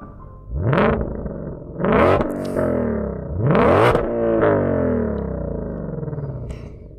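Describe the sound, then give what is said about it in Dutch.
A powerful Ford Mustang GTD sports car engine revs hard three times, each blip sweeping up in pitch and falling back, with a rough, rasping idle burbling between the revs, loud. “Ja, dat zijn wel de echte mooie geluiden. Hè? Dat hoor je niet bij een elektrische auto.”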